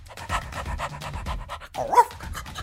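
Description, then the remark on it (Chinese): A small mini toy poodle pants in quick, steady breathy bursts, then lets out a brief high-pitched whine before the panting resumes. “泰迪犬安静了下来，乖乖地蹲坐在飞船面前。”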